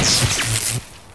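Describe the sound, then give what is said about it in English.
A loud, crunching crash of a flat screen television hurled off a building and smashing, a dense burst of breaking debris lasting under a second before cutting off abruptly into quiet. “This is the sound of a flat screen television hurled off a building.”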